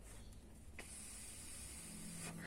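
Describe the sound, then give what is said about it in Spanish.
A steady airy hiss runs through the whole moment as vapor from a vape is inhaled and held in, a stealth vaping trick, with a couple of faint clicks and a low hum underneath; no one speaks. “Y vamos a meter, aunque se me haga voz de monstruo, el vapor aquí”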